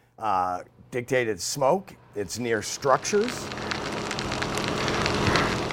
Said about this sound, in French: Ces crépitements que vous entendez sont ceux de l'incendie Rabbit, car en Californie on leur donne un nom comme les tempêtes, actifs en juillet dernier.